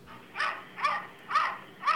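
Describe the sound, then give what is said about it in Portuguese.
A cat makes four short, yappy bark-like calls, like a small dog, evenly spaced about half a second apart, moderately loud, with no talking. “Tem gato que late no YouTube aqui, ó.”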